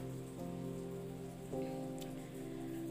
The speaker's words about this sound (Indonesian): Hari ini masih hujan seperti biasanya. Dengeran nggak? Rintik-rintik itu.